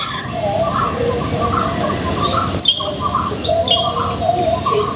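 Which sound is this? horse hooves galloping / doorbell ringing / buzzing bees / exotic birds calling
exotic birds calling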